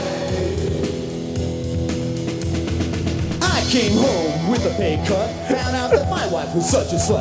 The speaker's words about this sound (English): so, if you want to hear the star of the movie rap the plot of the movie like it's some sort of Will Smith movie from 1994. it would sound something like this.